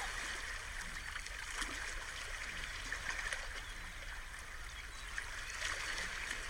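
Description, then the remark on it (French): Sea waves wash steadily at the shore, a soft continuous hiss of water with faint swells and bubbling, and no voices. “On inspire et on expire au rythme de la mer.”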